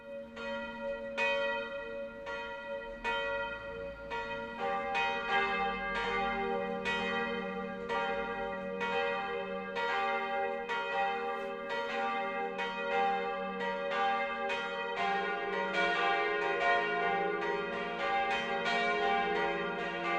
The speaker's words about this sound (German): Es ist 12 Uhr. Das Mittagsläuten kommt heute von der katholischen Pfarrkirche Marie Himmelfahrt im mittelfränkischen Treuchtlingen.